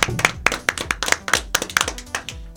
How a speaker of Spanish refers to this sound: Este aplauso es para vos y que sigan los éxitos.